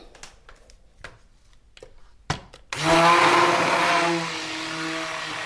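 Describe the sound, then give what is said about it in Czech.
A few light clicks and knocks of handling, then a hand blender starts up loud, running in a steady whirring drone as it churns a thick soap mixture of hydroxide and blended oils, easing slightly midway. “Tak a ručním mixérem.”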